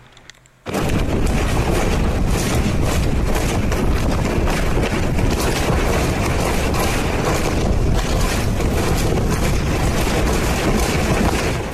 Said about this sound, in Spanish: Así se escuchaban ayer las fuertes ráfagas de viento en varias alcaldías de la Ciudad de México.